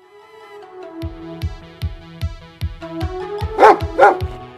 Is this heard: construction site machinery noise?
no